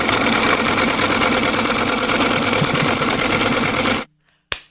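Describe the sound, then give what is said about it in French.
A sewing machine runs in a steady, rapid mechanical whir, loud, for about four seconds, then stops abruptly before one brief final burst, sewing name patches onto a child's sweater. “Euh, mon fils débarque dans la cuisine avec les espèces d'écussons avec son nom de famille qu'on doit coudre sur son chandail”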